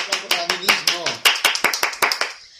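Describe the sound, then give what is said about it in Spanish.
A short burst of applause: quick, steady, sharp claps running throughout, with a voice calling out over the first second before the clapping carries on alone and fades slightly. “¡Un aplauso!”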